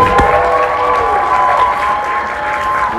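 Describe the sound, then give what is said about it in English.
Steady, loud applause from a sizable audience welcoming John Dugan and Ed Neal back to the stage fills the whole stretch, a dense wash of clapping with some faint cheering mixed in. “Give them a hand.”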